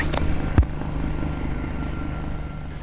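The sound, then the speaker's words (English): A helicopter drones steadily overhead, its low rotor thrum and engine rumble continuous and fairly loud, with a brief thump near the start and no talking. “so until we can reach him again, I'm afraid you'll have to just listen to this helicopter.”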